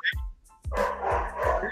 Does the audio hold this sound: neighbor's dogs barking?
yes